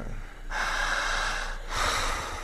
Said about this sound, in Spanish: Jale el aire con fuerza.